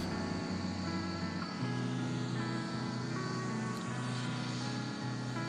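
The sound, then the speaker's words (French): A steady, loud roar of an Airbus airliner's jet engines during takeoff, with a low rumble and layered humming tones running throughout. No voices are heard. “ça c'est un peu plus grave, c'est un avion qui décolle.”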